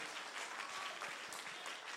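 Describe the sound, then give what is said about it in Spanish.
An audience claps for Jesus together in a steady, dense wash of applause that holds at an even loudness for the whole stretch, with no voices standing out. “Den un aplauso fuerte a Jesús si usted confía en la provisión de su Padre Celestial.”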